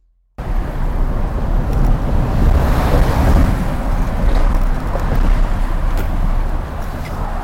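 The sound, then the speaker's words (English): A loud, steady roar of heavy traffic, including logging trucks, rolling across the Lewis and Clark Bridge into Oregon, with deep rumbling and gusty wind noise throughout and no voices. “The bridge is trembling from heavy traffic.”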